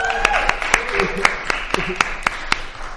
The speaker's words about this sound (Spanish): Bien, y no son aplausos fingidos, ¿eh? Si está en vivo.